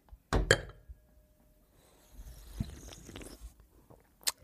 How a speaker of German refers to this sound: Allerdings würde ich mal wieder mit dir anstoßen hier. Wir haben das ja gemacht, dass wir auf okay. den Tisch dann die Sachen hauen.